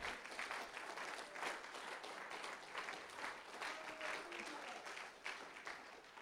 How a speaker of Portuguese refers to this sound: Fica de pé nesse momento e aplauda Jesus.